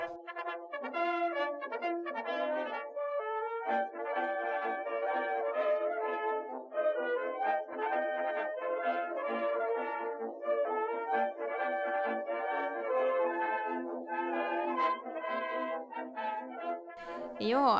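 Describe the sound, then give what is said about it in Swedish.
A short instrumental music interlude with sustained, rich brass-like tones shifting through a melody at a steady, fairly loud level, with no voices over it. “Men eh, vi spelar väl lite musik och sen så ser vi vad vi har hittat helt enkelt.”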